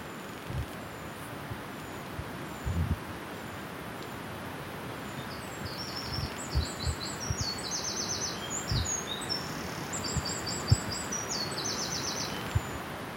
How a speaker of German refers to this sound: Okay, was hörst du? Ähm, ich höre einen Bachrauschen, Vögelgezwitscher, Grillenzirpen zirpen und Flügel von Schmetterlingen, keine Ahnung. ja, so klingt die Wildnis.